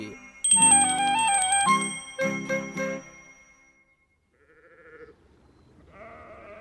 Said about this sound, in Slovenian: Ah, kako lepo cingljaš. Pozdravljena, ovčka.